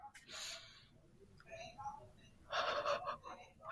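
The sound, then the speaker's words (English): A deep, gasping breath drawn in through the nose by a person no longer congested after being sick, fairly loud, with a second fuller inhale a couple of seconds later and soft breathy voice sounds in between. “you know that point in being sick where you're like, oh god, whenever I'm not snuffly anymore, I'm gonna appreciate breathing through my nose.”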